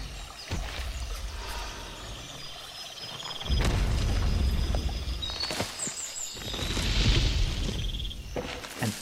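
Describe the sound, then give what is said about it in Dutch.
Heavy, deep booming footsteps of an approaching diplodocus thud slowly every couple of seconds over a rumbling outdoor background on soggy ground in the rainy season, with faint bird calls and a trickle of many small streams beneath the foliage under the steps. “En ook de diplodocussen hoor je nog voordat je ze ziet.”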